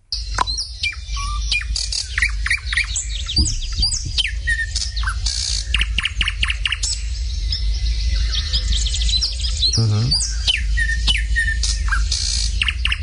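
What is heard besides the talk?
thrush nightingale singing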